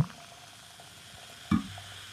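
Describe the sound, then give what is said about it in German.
A drink is poured into a glass, a soft, steady fizzing trickle with one brief, louder knock partway through. No one speaks. “Ich gieße jetzt auch.”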